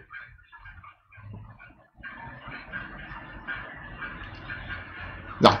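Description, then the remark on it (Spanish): Clanging of pots and pans from a cacerolazo protest, a steady dense clatter that builds after a quieter start and ends with one sharp, loud bang. “se escuchan los cacerolazos, sí, estamos con cacerolazos justo hoy día.”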